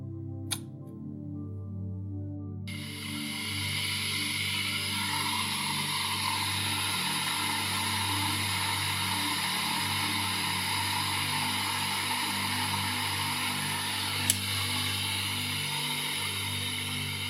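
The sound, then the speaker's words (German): Water heats toward a boil while tea is being made, with a steady low rumble and a rising, continuous hiss, punctuated by a couple of faint clicks and no voices. “Wir hören das Wasser aufkochen fühlen den Dampf, schmecken die Kräuter heraus.”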